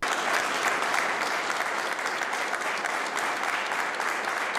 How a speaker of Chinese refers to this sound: 波兰总统杜达将象征国家最高荣誉的白银勋章交到泽伦斯基手中，观礼来宾立刻响起热烈掌声。